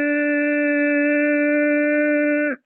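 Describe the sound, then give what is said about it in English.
A single steady hum held for about two and a half seconds on one exhale after a long deep inhale, a voice imitating a bee's buzz in a breathing exercise with thumbs closing the ears and fingers covering the eyes, ending abruptly with no talking. “And during the entire exhale, you make a buzzing sound like a bee, and it sounds like this.”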